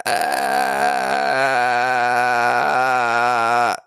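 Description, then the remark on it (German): A voice imitates cricket chirping with one long, steady, buzzy nasal tone rather than quick chirps. It is loud and alone, its pitch dropping slightly twice before it stops abruptly after nearly four seconds. “Das klingt nicht wie Grillen.”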